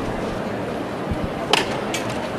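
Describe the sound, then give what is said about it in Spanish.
A single sharp strike of the hammer knocker on a brotherhood's procession float (paso) at La Campana, as the floats are being lifted, cuts through a steady crowd murmur, followed by a fainter second tap a moment later. “Y al tercero de martillo.”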